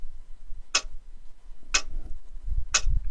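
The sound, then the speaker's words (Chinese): A clock ticks three times, one crisp, sharp click each second in a steady rhythm, over a soft low rumble with no talking. “我们平时说看时间，就是看时钟上显示的是几点几分。”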